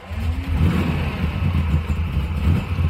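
A car engine revs with a steady low rumble that holds throughout as a woman drives the car away. No one speaks.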